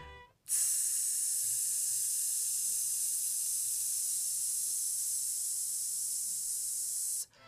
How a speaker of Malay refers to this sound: Dan hissing ini adalah latihan bagi melegakan peti suara setelah menyanyi maupun sebelum menyanyi. Dan uh, boleh juga diulang beberapa kali.